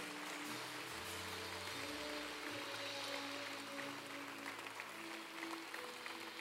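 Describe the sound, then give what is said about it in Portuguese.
A church audience applauds people who have just decided to follow Jesus, a dense wash of clapping sustained throughout, with soft organ or keyboard chords holding underneath. “Você pode aplaudir essas pessoas que decidiram por Jesus?”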